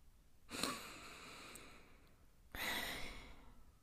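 A slow, deep breath drawn in and then let out, two broad airy rushes about two seconds apart, fairly soft, with no talking.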